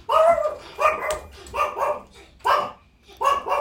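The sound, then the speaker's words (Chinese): The speaker's dog barks five times in a steady, evenly spaced series, each bark loud and mid-pitched with a slightly rough edge, no talking alongside. “你等一下，先让我把我的狗子控制住。”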